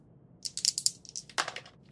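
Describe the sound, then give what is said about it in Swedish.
Two dice are rolled for a communication skill check and clatter across a hard surface in a quick burst of sharp, bright clicks. They tumble and settle within about a second and a half. Moderately loud, with no voices. “Slå ett slag på kommunikation då. Och då får jag två tärningar eftersom det är en expertis.”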